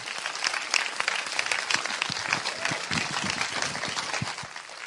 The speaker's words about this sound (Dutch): Geef ze even een applaus als ze naar voren lopen.